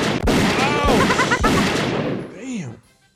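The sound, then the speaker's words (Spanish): Three sharp gunshots, fired at a horse with a broken leg, crack out roughly half a second apart over a dense, noisy background with voices mixed in, and a fading tone trails off at the end. “Y entonces eh, me tuve que bajar de mi caballo y que lo doy unos balazos.”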